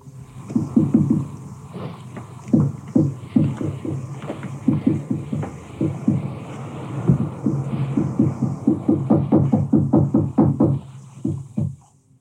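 Dull, muffled knocking of unexplained origin, heard at night by a mother and her children, repeats in quick irregular bursts for about twelve seconds, thudding steadily over a hissy, low-fidelity background of an original archival recording, with no one speaking.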